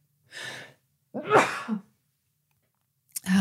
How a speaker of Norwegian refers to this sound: Det kom bare akutt et par nys her nå.